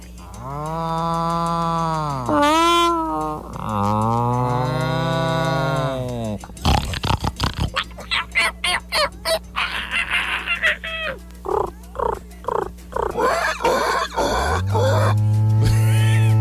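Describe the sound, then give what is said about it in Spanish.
A long, drawn-out cow lowing call opens, followed by a rapid series of short, choppy pig grunts and sharp, high squeals as the cow squeezes the pig, ending in a sustained loud squeal. “La vaca apretó el cochino.”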